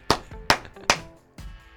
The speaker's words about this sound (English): Slow clap from just me.